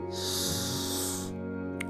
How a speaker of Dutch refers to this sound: Neem een paar rustige ademteugen in door je neus en uit door je mond. Eventueel uitademen met geluid als dat beter voelt en jou ontlaat.